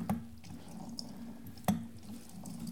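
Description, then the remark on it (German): Orange juice being squeezed in a citrus press to fill two glasses: wet dripping and trickling sounds with two sharper splashy clicks over a low, steady hum, with no talking. “aber man kann es natürlich schwierig gleichzeitig machen mit so einer Saftpresse.”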